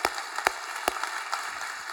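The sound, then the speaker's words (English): A few sparse, evenly spaced claps, about three or four sharp slaps roughly every half second, fairly quiet over a steady background hiss, with no talking, as an audience claps for a couple's first wedding anniversary. “And I'm super, yeah, we can clap.”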